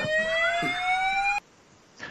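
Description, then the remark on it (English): A loud fire alarm blares with a harsh, steady electronic tone that rises slightly in pitch, sounding for over a second before cutting off abruptly into near silence. “Hearing the fire alarm which means it's time to get out of the stock market.”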